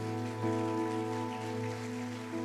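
Crowd applause at a church service: a steady wash of dense, rapid clapping that stays loud and even throughout, while a sustained musical tone hums underneath.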